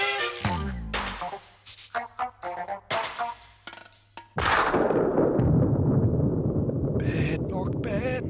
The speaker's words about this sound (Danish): da det første tordenskrald flinsede stilheden.